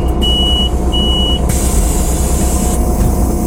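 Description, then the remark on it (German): Steady, loud engine rumble fills a bus interior, with two short electronic beeps near the start and a sustained hiss of air partway through. No one speaks. “Wieso klingt es ein Bus eigentlich wie so ein Presswerk.”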